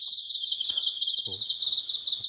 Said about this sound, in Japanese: 秋が深まってまたいろんな虫が鳴くようになりましたあ今スズムシの声も聞こえてきてますね